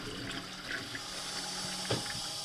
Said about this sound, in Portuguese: O autoclismo tem, tem dois, dois manipulos, este é, é, para consumir menos e este é para consumir mais água. Quando é para urinar, ou ir, eu, carregamos neste. Para as outras coisas, carregamos no outro.